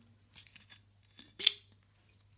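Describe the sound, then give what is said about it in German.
A cola bottle being opened: a few short crackling clicks from the cap twisting, then one sharp, bright burst of fizzing hiss, all over a steady low hum. “Ah, Öffnen wir jetzt mal und sagen Prost.”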